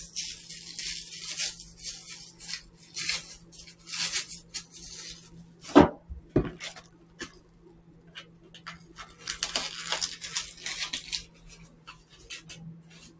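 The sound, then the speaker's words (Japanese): Ingredients being chopped on a cutting board for a simple hot pot: irregular knife taps and scraping, with a couple of sharper knocks midway and a steady low hum behind, no voices. “それと今から軽く、もう簡単な鍋をします。”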